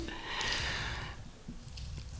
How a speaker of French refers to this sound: La bouteille est petite, quoi, elle fait 10 cm. Mais... Alors, il y a un autre petit papier roulé dedans. On va l'ouvrir, on n'a pas encore ouvert. je dévisse le bouchon de la bouteille.